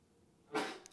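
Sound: sneeze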